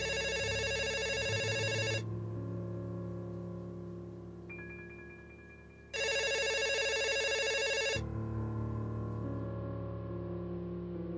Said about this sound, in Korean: 프론트맨 역시 평소처럼 호텔에 걸려오는 예약 전화를 받고 있었다.